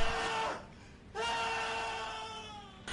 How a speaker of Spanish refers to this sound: Grita de una forma que nunca había escuchado